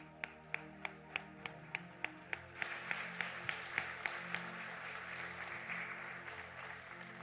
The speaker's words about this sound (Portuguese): Pastor, por gentileza, recebe esse homem com uma salva de palmas.